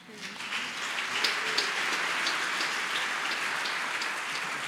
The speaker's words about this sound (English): So like now I'm washing my hands and I'll be able to.